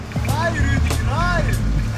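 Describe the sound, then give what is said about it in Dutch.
An Ivago garbage truck's engine rumbles steadily in Ghent, heard from inside the cab, a constant low drone with brief voices rising over it. “In deze aflevering rijden we mee met de Ivago vuilniswagen in Gent.”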